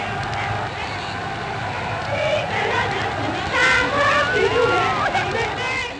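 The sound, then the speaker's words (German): A dense outdoor crowd in the streets and squares of Geneva's city centre roars with cheers and excited chatter, celebrating the end of the war in Europe, many voices overlapping continuously, with louder bursts of shouting rising partway through amid constant street noise. “Alle Straßen und Plätze der Innenstadt werden von Jubel und Festlichkeit überflutet.”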